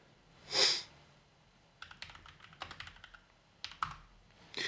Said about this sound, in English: Ah, damn keyboard.